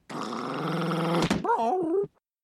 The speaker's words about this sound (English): Yep, Homer has come home. No one is there except the dog, who's attacking him, which is unusual.